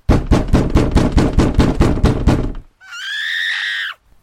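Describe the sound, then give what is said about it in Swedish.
Hard, rapid pounding on a front door during a storm, about a dozen loud blows in quick succession, followed by a brief pause and then a sustained high-pitched scream from a woman outside. “När jag stod precis intill dörren knackade det igen. Den här gången mer bestämt och hårt, nästan lite aggressivt.”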